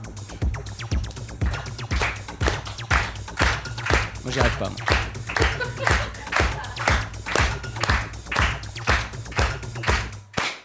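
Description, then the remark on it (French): Hand claps keep a steady, brisk beat at 120 BPM, a basic tempo for house and techno, about two per second, sharp and evenly spaced over a low sustained hum, while someone speaks briefly. “On commence tranquillement avec 120 BPM, le tempo qu'on pourrait dire basique pour la house et la techno.”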